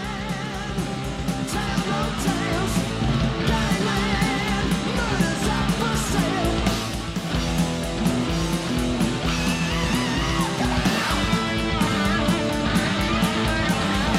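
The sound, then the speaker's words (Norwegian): Loud, dense heavy metal playing continuously: a wailing lead guitar solo over driving bass and drums, with a brief high vocal scream cutting in. No speech, just the full band. “Det var høydepunktet. Inn i soloen der. Lille skriket og bassen”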